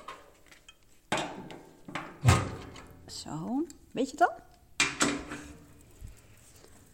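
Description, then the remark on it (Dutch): A few heavy wooden thuds and clunks arrive at irregular intervals as pieces of wood, the last a large piece, are thrown into a wood stove, with a person speaking briefly between the knocks. “Want dit gaat natuurlijk over onze houtkachel. En die moest ik erin gooien.”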